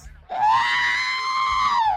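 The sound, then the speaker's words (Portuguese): A loud, electronic R2-D2 robot shriek, wanted as a buzzer sound: one sustained, high, buzzy wail that holds steady for almost two seconds before dipping slightly at the end, with no talking over it. “Eu quero o grito do R2D2.”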